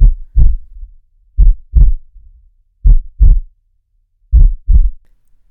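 A steady heartbeat thumps in paired lub-dub beats, four doubles spaced about a second and a half apart, deep and loud with nothing else around it.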